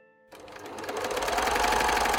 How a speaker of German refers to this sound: Er ist jetzt wieder von früh bis spät oft 16 Stunden lang an seiner alten Nähmaschine.